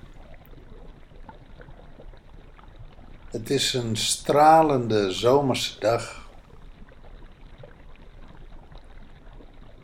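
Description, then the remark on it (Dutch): Gentle Mediterranean Sea water lapping and washing around an island in a steady, quiet wash throughout, with a person speaking briefly in the middle over the soft background of moving water. “Dit is de Middellandse Zee.”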